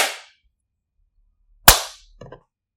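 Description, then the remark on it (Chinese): One sharp, loud hand clap, made after a three-two-one countdown to sync a recording, cracks out and fades quickly, after the dying tail of another clap at the start; a few faint soft clicks follow, with no talking. “没事，大家拍了就行。”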